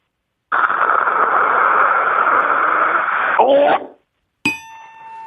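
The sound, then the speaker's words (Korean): A person vocally imitates dental suction poking the throat at the dentist: a loud, steady hissing slurp lasting about three seconds, ending in a brief gargling choke. After a short pause, a ringing chime sounds. “자, 치과에서 석션 하다가 목구멍을 찌르는 소리 한번 들어보겠습니다.”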